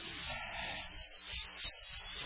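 Crickets chirp steadily in a high, shimmering trill, pulsing in about five regular bursts over a quiet background, with no voices.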